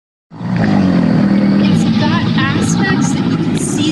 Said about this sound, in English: some similarity with a kind of growl like sound in, in a crocodilian